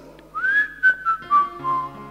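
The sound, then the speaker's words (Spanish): A soft, calm whistle carries a short melodic phrase, rising gently and then drifting slowly downward over about two seconds. It sounds smooth, with no one talking. “Y de pronto escuchó ese silbido apacible.”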